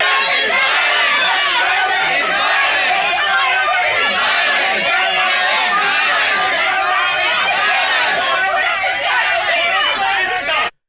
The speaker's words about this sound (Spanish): Estos blanquitos están gritando a la gente y bullying them, forzándolos a levantar su puño en apoyo a Black Lives Matter o en contra de la supremacía blanca.